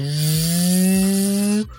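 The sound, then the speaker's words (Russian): A voice imitates a chainsaw with a steady, loud, buzzing drone, rising slightly in pitch for about a second and a half, then cutting off abruptly. No speech accompanies it. “Или бензопила, да.”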